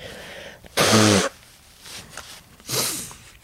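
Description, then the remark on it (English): Someone blows their nose on camera: two forceful nose blows, a loud, half-second honking blast with a buzzy low tone, then after a pause a shorter, softer blow. No talking. “I'm blowing my nose on camera.”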